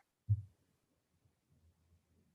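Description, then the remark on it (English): A phone text notification sounds once as a single deep, booming low tone that fades quickly, followed by a faint low rumble. No one speaks. “That text notification sound sound kind of was a little menacing.”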